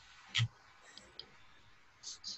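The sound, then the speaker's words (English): Dice rolled for an attack in a game clatter in a few short bursts: a sharp, loud clack, then faint scattered ticks, and two more brief rattling knocks near the end. “And I'll go find my dice.”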